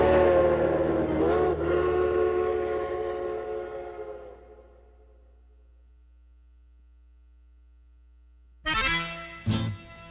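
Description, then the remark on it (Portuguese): A steam train whistle gives a long, loud blast that slowly fades out, then after a pause sounds again in two short bursts, with a low steady hum underneath. “E escuto o apito do trem, que se vai rumo à charqueada.”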